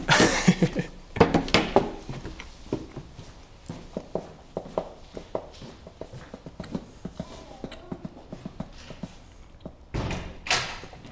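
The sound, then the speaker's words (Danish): A door is pushed shut by other people, with a couple of solid thuds near the start and end, amid assorted knocks, shuffling and small clatters, with no talking. “Jeg tror, de lukker døren.”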